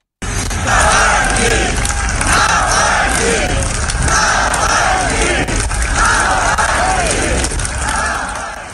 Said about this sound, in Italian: Quando il corpo era arrivato era stato accolto dal nome dell'oppositore di Putin, ripetuto in coro dalla folla.